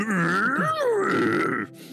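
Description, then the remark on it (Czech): A person growls out a mock dinosaur roar, one sustained, loud, throaty bellow lasting over a second that bends in pitch, dips, then rises before cutting off abruptly. “umíš dinosaura. nejlíp.”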